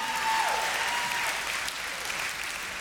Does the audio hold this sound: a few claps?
yes